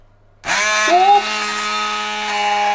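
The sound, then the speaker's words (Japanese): A Braun Multiquick 5 hand blender, used without a lid on its slower speed 1 setting, starts abruptly and runs with a steady, loud motor whine and buzzing harmonics, its pitch dipping briefly as it churns through banana and milk, then holding steady. “買ってよかった！イチ押しアイテム図鑑：ブラウンの「マルチクイック5ハンドブレンダー」”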